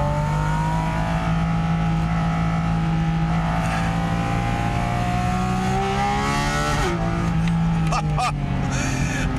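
The 4-liter engine of a GT4 sports car roars loudly, air drawn in through a large carbon airbox behind the driver, sport exhaust not engaged; its deep intake note drones steadily before the revs climb and sweep upward briefly near the end.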